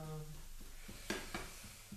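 A steady, quiet hiss of food sizzling in a hot frying pan, with a couple of brief scraping clinks from stirring partway through and a faint low hum at the start.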